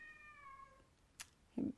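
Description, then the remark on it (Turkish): A cat lets out a long, drawn-out meow at low volume, followed by a brief sharp noise and a short low vocal sound at the end. “Durmuyor ki işte bir yandan da kedi.”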